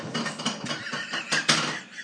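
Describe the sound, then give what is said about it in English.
A cat yowls in agitation, a run of loud, harsh, wavering cries that rise and fall over two seconds with a sharper peak near the end, and no talking. “Okay, the cat is completely flipping out.”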